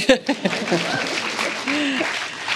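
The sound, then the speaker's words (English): A short burst of audience applause: dense, steady clapping that starts sharply and holds at an even level, with a few voices cheering faintly over it. “Great applause for that.”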